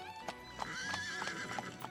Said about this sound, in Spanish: Y, cuando no lo estaba, el agradable arrullo del golpeteo de los cascos de los caballos y el suave chirrido de las ruedas de las carretas sobre la tierra eran tan soporíferos como una canción de cuna.